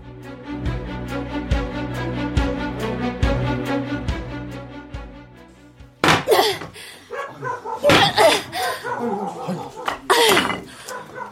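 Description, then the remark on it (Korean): Heavy wooden granary storehouse door being banged, a series of dull thuds about once a second over a sustained droning musical tone, then a person talking takes over for the rest. “아유, 이놈의 곡감문은 누구를 굶겨주기라고 이렇게 튼튼하게 만들어놨담.”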